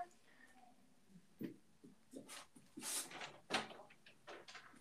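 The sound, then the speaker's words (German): A door is handled as someone steps out to hang a sign in front of it: a handle clicks, the door swings open, soft knocks and rustling follow, then it is pushed shut with a muffled thump, all fairly quiet with no talking. “Warte kurz, ich, ähm, ich, ich leg noch kurz so ein Schild vor meine Tür”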